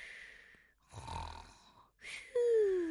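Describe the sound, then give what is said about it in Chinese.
A snore from the story character Little Bear Dengdeng taking an afternoon nap, in two breaths: a breathy intake, then a low rattling rumble, followed by another inhale ending in a thin whistle that slides downward in pitch. Moderately loud, with no talking. “嘘，哼，我是小熊噔噔，呼噜呼噜睡午觉了。”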